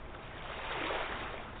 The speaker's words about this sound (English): Some waves are powerful and others smooth and rippling.